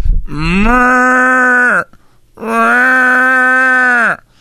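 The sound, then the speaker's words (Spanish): A person imitates two cows, giving two long, loud mooing calls in a row, each held steady for over a second with a short pause between them. “Eh, eran dos vacas que estaban las vacas y volteando para arriba y la hacían así.”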